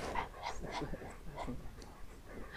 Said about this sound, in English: The dog does not know why we've stopped. He's not aware of my search for the sea. He's panting.